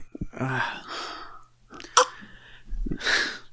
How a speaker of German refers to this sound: ich habe Wasser getrunken, ja. dabei gelacht. Über dich.